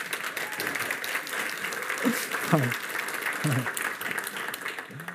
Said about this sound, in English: All right, why don't you stand? yeah, you can clap. If you're going to clap, like real, for real, do it. Yeah.